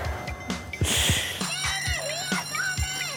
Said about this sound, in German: Ah, und jetzt sind wir gerade pünktlich auf die Glocke wieder zurück beim Schulhaus.